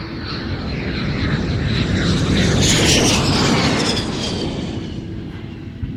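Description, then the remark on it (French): A Fairchild propeller airplane, number 571 of the Uruguayan Air Force, takes off at 8:05 with a loud, steady engine roar that swells toward the middle and eases slightly, its droning tones sliding in pitch as it passes. No voices. “À 8h05, le Fairchild numéro 571 de l'armée de l'air uruguayenne décolle.”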